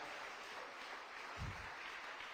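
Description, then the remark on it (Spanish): An audience applauds, a dense, steady crackle of many hands clapping together, with a brief low thump partway through and no voices standing out. “Mire, si esos aplausos fuera la fe, por Dios santo, hermano.”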